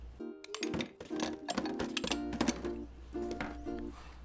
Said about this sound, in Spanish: Estoy organizando todas mis herramientas. Y wow, vaya que tengo muchas. Tengo tres martillos.